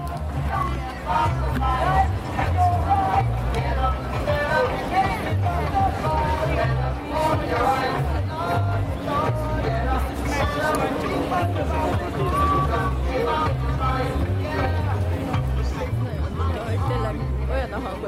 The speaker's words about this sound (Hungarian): Itt, hogy megérkezünk a műegyetemhez, egy nagy buli hangulat van, hallatszódik a zene.